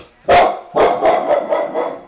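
A female dog barks loudly, one sharp bark followed by a quick burst of several more in rapid succession, with no one talking.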